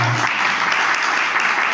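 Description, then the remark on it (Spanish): Steady applause for an assistant fills the moment, a dense, even wash of many hands clapping at a constant loudness with no pauses, lasting under two seconds. “Un aplauso para ella.”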